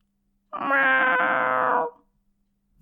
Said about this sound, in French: Oh zut Ce n'est que Perlipopette, le chat du voisin. Et les chats, ça ne pond pas, tout le monde sait ça. Perlipopette passe sans même voir l'œuf.